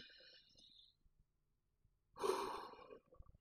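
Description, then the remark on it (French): A single deep, noisy breath drawn in through the nose, filling the belly, fairly loud, preceded by a quiet stretch with faint breathy hiss and no talking. “il faut que vous appreniez à respirer par le nez et jusqu'au ventre”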